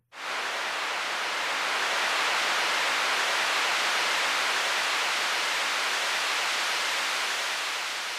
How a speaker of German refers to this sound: So kann man sich zum Beispiel seine eigene Unwetterlandschaft zusammenbauen, die, wenn man die einzelnen Komponenten betrachtet, komplett aus weißem Rauschen besteht. Also wir nehmen zum Beispiel Regen.